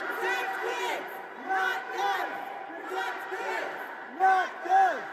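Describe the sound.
A crowd of activists yelling and shouting at lawmakers walking through the state Capitol on Thursday, screaming at them to do their jobs and pass gun reform laws; overlapping raised voices with rising and falling cries, steady and loud throughout with a couple of sharper shouts near the end.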